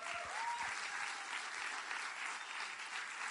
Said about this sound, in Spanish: Vamos a dar un aplauso al diamante internacional